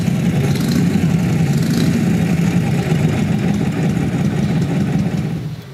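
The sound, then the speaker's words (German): A Harley-Davidson knucklehead engine, a type made from 1936 to 1947, runs steadily, a loud low-pitched throbbing idle with a continuous rumble that holds even throughout, easing off slightly at the very end. No one speaks. “Made from 1936 to 1947, this is the knucklehead engine.”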